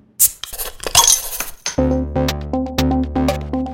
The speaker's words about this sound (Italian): Detto questo, come al solito, sigla e poi cominciamo.